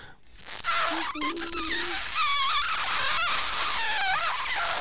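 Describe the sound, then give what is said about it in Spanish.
A voice imitates air escaping under pressure through cavities of a live lobster boiled in hot water: a steady, loud, breathy hiss lasting several seconds, with thin, wavering squeaky whistles rising and falling on top. “Eso no es la langosta gritando, eso es el, aire saliendo.”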